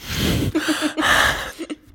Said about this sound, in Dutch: Je bent enorm in die microfoon aan het hijgen.